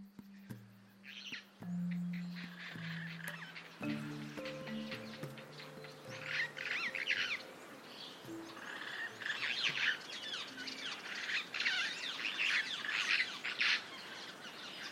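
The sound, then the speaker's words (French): Savanna ambience in Serengeti National Park, Tanzania, in mid-May at the end of spring, filled with many birds calling and chirping in overlapping bursts, bright high tweets over a low steady hum, with occasional harsher squawks, no voices. “je te propose de partir en expédition au cœur de la savane du parc national du Serengeti, en Tanzanie.”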